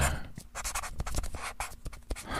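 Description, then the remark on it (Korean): A pen scratches across paper in a notebook in quick, uneven strokes, with short taps and pauses between marks, fairly quiet with no talking, as someone writes down notes. “난 정신 나간 사람처럼 문을 여닫으며 기록했다.”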